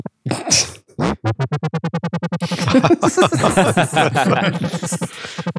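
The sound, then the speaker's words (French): A synthesized futuristic space motorbike engine sputters in rapid, evenly spaced pulses that speed up into a continuous buzzing rev. It is loud, with no other sounds. “C'est une moto de l'espace.”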